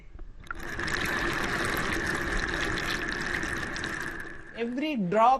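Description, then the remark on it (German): A kitchen tap in a family home runs in a steady, hissing stream for about four seconds, with a faint ringing tone over the rush, as a plumber checks whether it drips, before the flow fades and a voice starts speaking. “Ihr Ziel der Wasserhahn. Tropft er oder tropft er nicht?”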